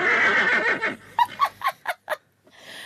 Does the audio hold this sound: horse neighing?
yes